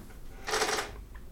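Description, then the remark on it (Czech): A single short, rough creak of a chair, a brief noisy scrape lasting under half a second, against a quiet background with no talking. “Tohle bylo jenom vrznutí židle, to nebylo ještě mince.”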